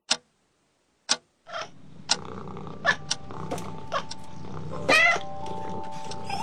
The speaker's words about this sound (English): That same morning early, the princess woke in a terrible fright. There was a hideous noise in her room, creatures snarling and hissing and rocketing about as if they were fighting.